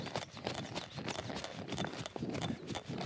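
Quick, steady patter of feet running in place with small steps during an exercise session, each light step landing in a fast even rhythm, fairly loud, with no voices.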